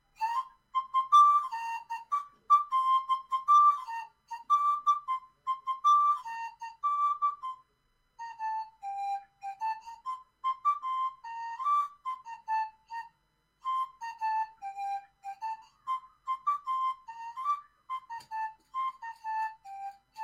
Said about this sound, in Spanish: Esto es lo que aquí se conoció como el capador o como el chiflo, tan, término también venido de España. El, voy a ver si sonido sale con el micrófono que tengo acá.